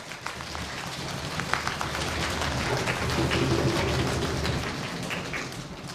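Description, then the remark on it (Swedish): A group of people imitates rushing water, producing a steady, dense hiss scattered with soft taps and patters, like heavy rain, holding fairly loud throughout with no talking. “det här var vatten, då låter det som stora vatten.”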